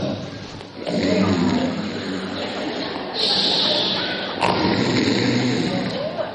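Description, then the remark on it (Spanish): A voice imitates loud snoring, producing rough, rattling breaths that run continuously for several seconds, harsh, with a couple of surges in intensity. “Roncando.”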